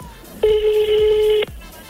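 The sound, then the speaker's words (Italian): A single steady electronic ring tone, about one second long, plays loud through a telephone on speakerphone, with faint background voices around it. “Attenzione, aspetta Viva voce. Ma che comodo immagini. Eh. Attenzione. Squilla, squilla.”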